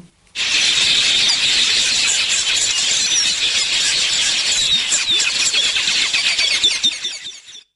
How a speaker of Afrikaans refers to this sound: dan die volgende roep is van die gewone quelia.